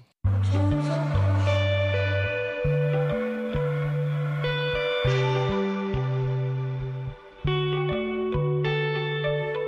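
A pop song plays loudly and steadily, with a punchy bass line stepping between notes under bright, sustained, effect-heavy guitar or synth chords and no singing yet, with only a brief dip near the end.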